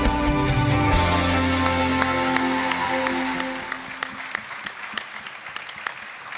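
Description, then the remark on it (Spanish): A church audience claps loudly and steadily to welcome the word of God, the dense applause swelling over sustained music, then thinning into scattered individual claps as it fades out near the end. “Recibamos con un fuerte aplauso la palabra de Dios.”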